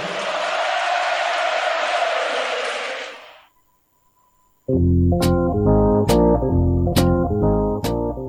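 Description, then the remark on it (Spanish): A radio show separator jingle: a burst of crowd-like roar fades into a brief silence, then loud, punchy music kicks in with steady, regular beats until the end. “Bueno, entonces vamos a escuchar un separador.”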